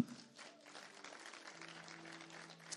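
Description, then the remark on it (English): An audience claps steadily in a dense, continuous patter for a few seconds, fairly soft overall, with sustained low keyboard-like tones humming beneath the applause. “come on, let's clap for real.”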